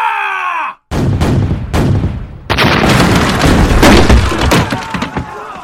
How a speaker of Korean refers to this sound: 군사 일부가 벽을 올라 성 안으로 들어가자 성문 밖에서는 장세작 등이 칠성문을 타격하였다. 대포를 발사하여 성문을 부숴라!